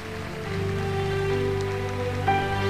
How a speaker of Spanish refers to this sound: Le dan palmas a él.